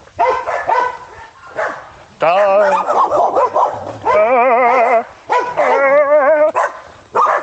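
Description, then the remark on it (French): Several dogs bark and yip together in a loud chorus, short yelps giving way to long wavering howl-like cries that rise and overlap in bursts. “La chorale des toutous.”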